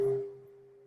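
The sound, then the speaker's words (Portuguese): A single bell made of eleven metal alloys is struck once during a guided breathing meditation, its bright attack settling into a steady, sustained hum that slowly fades. It rings alone and clear, with no voices. “Então eu peço a você que inspire lenta e profundamente quando eu tocar o sino.”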